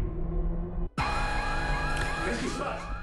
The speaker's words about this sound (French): Alors la petite sirène stridente, c'est évidemment le signe qui a un petit souci.